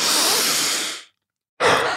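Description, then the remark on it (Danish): In a fast breathing exercise, a long, loud, full-force breath is drawn in through the nose with a broad rushing hiss, filling the belly and then the chest, followed by a brief pause of silence, then a strong breath pushed out through the mouth. “Så det er ind igennem næsen, men det er fuld skrald. Det er ikke sådan en langsom og blid.”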